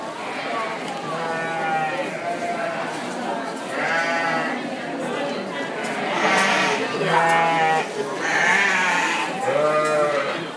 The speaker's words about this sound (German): Also ich bin gerade auf dem New York State Sheep and Wool Festival, also known as Rhinebeck. Und äh, was wir im Hintergrund hören, sind diverse vierbeinige Elemente, die gerade zum Teil geschoren werden. Also wir gehen gerade auf einen offenen Stall